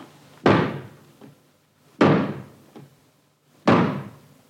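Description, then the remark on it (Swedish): Someone sitting on a high chair thumps a drum with their hand three times at a slow, steady pace, each loud booming hit ringing out, with a quieter tap between the strokes and no talking. “Thea som sitter på den höga stolen slår med handen mot trumman.”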